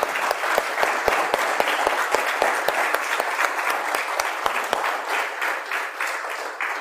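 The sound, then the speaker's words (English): Sustained applause from a large group honouring people standing who have served their country in the military, a dense wash of overlapping claps with sharp individual hand claps popping out, steady and loud throughout with no voices. “And so this morning, if you've served our country uh, in the past, I would just ask if you could stand so we could just give you an applause, you know, and just uh, out of gratefulness.”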